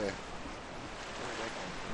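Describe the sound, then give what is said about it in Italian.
Sea water surges and washes into a small natural rock pool as the sea comes in with the Scirocco wind, a dense, steady rush of surf with wind, and a brief voice at the very start. “Ora c'è un po' di... sta entrando un po' di mare da Scirocco, vedi?”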